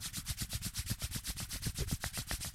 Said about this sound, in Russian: Я потираю ручки.